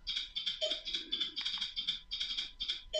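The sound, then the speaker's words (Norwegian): Rapid typing on a computer keyboard to enter a code, a steady stream of crisp, bright key clicks in quick uneven bursts, fairly loud, with no voices. “og han begynte å taste inn Han visste at han var nødt til å taste inn en kode før alt gikk galt.”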